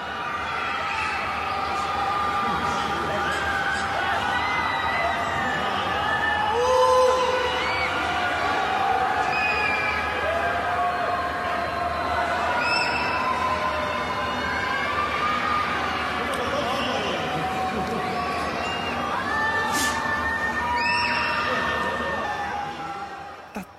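Many voices of people in Wuhan during lockdown shout, scream and chat from the windows of high-rise buildings all around, echoing between the tall buildings, a continuous chorus of yelling and chanting with no single voice standing out.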